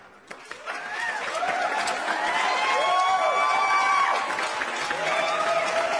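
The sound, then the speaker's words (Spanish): Steady, dense applause from a crowd, mixed with cheering and whooping voices, holding at a loud level for about six seconds after a quick start. “la neta sí merece un grandioso y merecido aplauso, muchachos”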